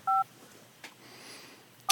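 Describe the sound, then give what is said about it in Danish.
Two crisp dual-tone phone keypad beeps as a telephone number is dialed, one at the start and another at the end, separated by a quiet stretch with faint background noise and a soft click. “Jeg håber, vi ringer til Nordic Noodle nu.”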